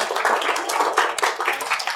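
A crowd at a gathering in Sandringham applauds as a wellness centre owner is introduced, with dense, steady clapping from many hands filling the whole clip at an even, fairly loud level, with no voices over it.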